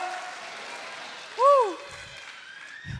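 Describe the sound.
A church audience claps and cheers hallelujah, giving glory to Jesus, in a steady wash of applause, with one voice calling out a short rising-and-falling shout midway.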